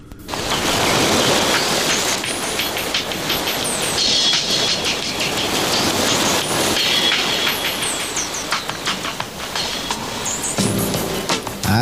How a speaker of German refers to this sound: No, no, no, wir haben äh, ein Jingle gefunden.